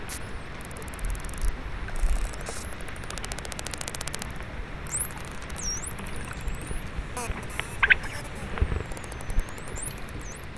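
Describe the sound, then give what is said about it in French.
Underwater recording of striped dolphins, relatively small dolphins about 2 metres long, common in the Mediterranean: rapid buzzing click trains alongside high, rising and looping whistles, heard over steady hissing background noise, with several overlapping calls. “Ici, on est sur un bleu blanc, c'est sur un dauphin relativement petit, de l'ordre de 2 mètres quand même, euh, assez présent en Méditerranée.”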